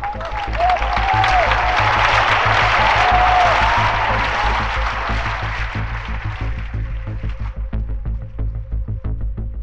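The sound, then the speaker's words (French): A crowd of 12,000 people at a tennis match applauds Chris Evert and her young Czechoslovak opponent after Evert's 2-6, 6-2, 6-1 win, a dense, roaring wash of clapping that swells, holds steady, then thins after about six seconds into scattered individual claps, with a low hum underneath and a few faint whistles early on. “12 000 personnes ont alors applaudi dans un même élan la princesse et sa demoiselle d'honneur.”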